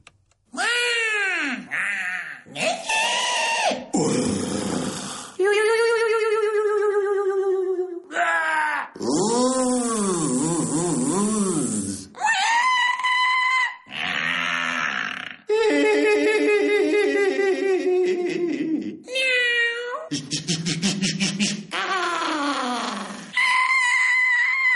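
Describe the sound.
One person's voice performs a piece of 67 mouth sounds, a tribute to the voice for Voice Day: a rapid string of squealing and swooping whines, moans, groans, hissy bursts and burp-like croaks, each loud and lasting a second or two, with short gaps between.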